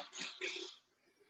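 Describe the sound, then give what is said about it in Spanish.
A dog gives two quick barks in close succession, fairly faint, followed by a brief quiet stretch. “No te preocupes, aquí hay todo tipo de ladridos de perros, bomberos, ambulancias, pues la vida.”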